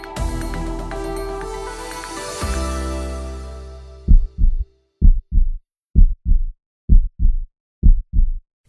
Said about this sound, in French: Des battements de cœur. À chaque battement, le cœur pompe le sang et le fait circuler dans le réseau d'artères et de veines.